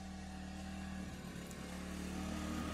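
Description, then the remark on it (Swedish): A lawn mower engine drones steadily, a low continuous mechanical hum with a slight wavering pitch, running on its own with no voices over it. “Nu kommer den jävla gräsklippare här.”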